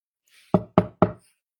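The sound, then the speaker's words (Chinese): Three loud, heavy bangs of someone knocking and kicking on a door land in quick, even succession, each with a short booming decay. Only a faint rustle comes before them, and no voices are heard. “此时，门外传来连敲带踢的敲门声和大喊声：“ 哥哥，快开门，我来啦！”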